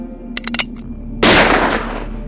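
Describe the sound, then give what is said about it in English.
A few faint metallic clicks, then a single sharp, loud pistol shot fired at a locked door, bursting across the whole range and ringing out in a fading tail. No one speaks. “Charlie boy, give me your pistol. Stand back.”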